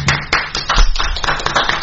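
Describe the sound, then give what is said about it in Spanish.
A small group of people applauding Lucho Robles, with dense, irregular hand claps running steadily for a couple of seconds, fairly loud, with no voices. “Aplausos a Lucho Robles, ¿eh?”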